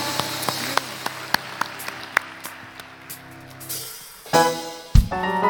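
Church audience applause offered in glory and thanks to the Lord during a service, heard as sparse, fairly steady claps over sustained musical tones, not a dense roar; a voice joins in near the end.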